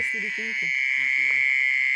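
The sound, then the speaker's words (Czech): A mole cricket, a cricket about ten centimetres long that lives in mud, gives a steady, high churring trill from under a leaf in the dark, loud and unbroken throughout, while faint low voices murmur briefly underneath. “No, Probudila se krtonožka. Deseticentimetrový cvrček, který žije v bahně a má rozšířené nožičky jako krtek.”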